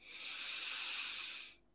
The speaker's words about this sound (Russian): Глубокий вдох